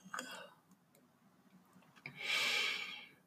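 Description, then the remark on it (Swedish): A person yawns: a short voiced start, then a long, breathy exhale that swells and fades over about a second, with no talking. “Och när jag har gäspat klart så kommer den stilla avslutande tonen.”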